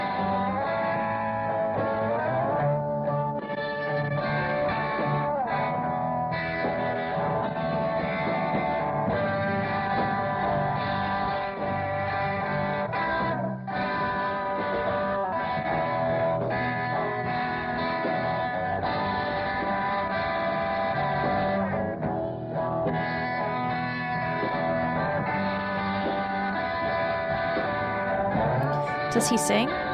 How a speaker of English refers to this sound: So he's singing right now. Interesting. If you listen really closely, you can hear it. Oh yeah, there.